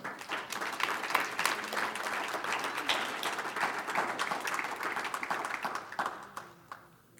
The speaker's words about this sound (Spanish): Gloria a Dios. Un aplauso al Señor.